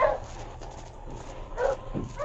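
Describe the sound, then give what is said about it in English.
A husky gives a few short, whining barks mixed with whimpers, fairly loud, spaced unevenly across the moment with no voices present. “Hello there! Hello, Husky!”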